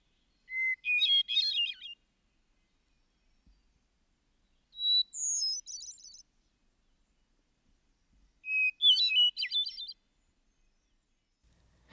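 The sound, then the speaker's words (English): A wood thrush sings three separate phrases, each a clear fluted note leading into a rapid, trilling flourish, spaced by short silences. The bird stands alone against a quiet background. “one feels that perhaps the wood thrush has more compass and power.”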